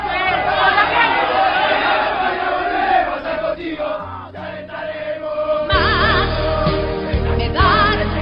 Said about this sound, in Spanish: Hola chicos, buen trabajo, ¿eh? Escuchen a la gente que nos vino a ver, vamos.